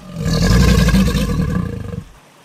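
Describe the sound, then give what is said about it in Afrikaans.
A huge crocodile lying on rocks beside a river gives a loud, deep, rumbling roar lasting about two seconds before it cuts off and fades into quiet. “Hy sien hoe die kameelperd groot oog na hom kyk en hy brul moedswillig.”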